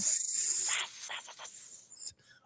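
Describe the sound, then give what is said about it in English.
A person imitates the hissing steam radiator of an uncontrollable heating system in a pre-war building in Brooklyn with a long, steady, breathy hiss that wavers and breaks into a few shorter sputters before fading out. “first of all, you live in a pre-war building in Brooklyn, so your heat uh, is oh, uncontrollable. it's just it's either so hot or no. so cold, and there's no in between. It's just a snake going”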